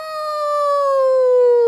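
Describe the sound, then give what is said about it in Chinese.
A voice imitates a big wolf's howl while telling the Three Little Pigs story: one sustained, tonal call with rich harmonics, gliding slowly downward in pitch and growing slightly louder over under two seconds, with no other sounds. “从草丛里跳出了一只大野狼，三只小猪被吓得赶紧逃回各自的家里。”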